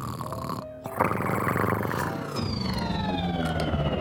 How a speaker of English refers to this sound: Huh, that's a strange noise. I've never heard a cat snore that sounds like a spaceship. Wait a minute, that's a real spaceship!